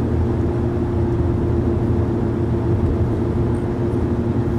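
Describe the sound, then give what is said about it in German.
A steady low rumble of a car interior while driving, continuous and fairly loud, dominated by deep engine and road drone with a faint hiss above, no voices. “Das Auto macht wieder ein bisschen Nebengeräusche, obwohl es gar nicht dasselbe Auto ist.”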